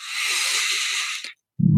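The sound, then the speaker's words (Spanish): A steady, breathy hiss of air exhaled through the mouth during a breathing exercise lasts just over a second, fairly loud, then a brief silence before a low voiced sound begins. “Muy tranquilos, igual siguen con la respiración por la nariz y exhalan por la boca”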